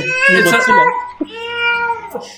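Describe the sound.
A voice imitates Godzilla's roar, coming out as strained, yowling wails like cats fighting: two long, loud cries, the first rougher, the second a steadier drawn-out howl.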